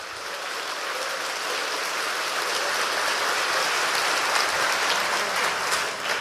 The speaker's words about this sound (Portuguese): Você pode dar um grito, um brado de vitória e uma salva de palmas a Jesus, ao nosso Deus. Se é para Ele, tem que ser melhor.